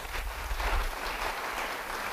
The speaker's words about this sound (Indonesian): Beri tepuk tangan bagi Tuhan.